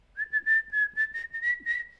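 A person whistles one steady, close-up note that holds for about two seconds, its loudness pulsing in quick, breathy swells. No one speaks.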